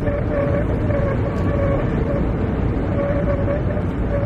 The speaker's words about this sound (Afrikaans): Maar daar's 'n goeie dosis padlawaai en toe die wind die gou teen 'n sekere hoek tref op die snelweg het 'n eienaardige en steurende geluid kop uitgestuur.